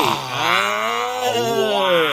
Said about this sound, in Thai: ซึ่งในเพลงเนี่ยนะครับก็จะมีโอ้โหเสียงร้องของเจ้าสัตว์มากมายเลยทีเดียว หลากหลายชนิดหนึ่งในนั้นไม่แน่ใจว่าน้องๆเนี่ยได้ฟังหรือว่าได้ยินหรือว่าแบบว่ารู้หรือเปล่าว่ามันมีสิงโตอยู่ในเพลงนี้ด้วย